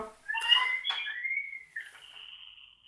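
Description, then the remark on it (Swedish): A baby screams in a shrill, drawn-out wail that bends up and down in pitch, heard on its own with no talking. “Ja, det sista ni hörde var då en, en bebis som skrek tror jag.”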